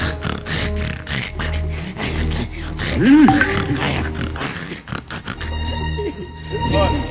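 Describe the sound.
A voice imitates snoring with a run of rough, throaty snorts and grunts, rising into a louder drawn-out growl midway, with noisy background clatter and some talk underneath.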